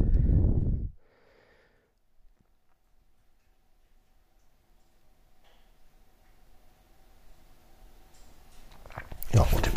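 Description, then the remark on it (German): A cat eating: faint, irregular crunching and ticking clicks over a quiet background, framed by a loud snort-like breath at the start and another burst at the end. “frisst natürlich mal wieder, wie soll es auch anders sein.”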